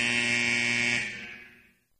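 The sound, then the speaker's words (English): A loud, harsh 24-second basketball shot clock buzzer blares in one sustained blast for about a second, then fades out over the next second. No one speaks. “These 24 second shot clocks have been brought to you by nuts.gov.”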